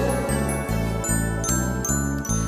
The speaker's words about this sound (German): Die kleine Spieluhr, sie klingt so schön. Die kleine Spieluhr, ich darf sie sehen Sie spielt ein Lied für mich, ein Lied voll Glück. Mach ich den Deckel auf, spielt sie ein Stück.